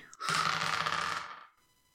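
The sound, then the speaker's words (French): Dice rattle and tumble across a hard surface for about a second, a busy clatter of quick clicks that fades out as they settle; the dice are rolled for a stealth check. “vas-y pour, pour euh, le jet de discrétion.”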